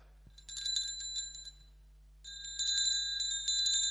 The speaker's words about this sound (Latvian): Tad reāli šis zvans ir skaists zvans. Gribētu jums parādīšu, kā viņš skan. Es tagad mēģināšu viņu dabūt kaut vaļā.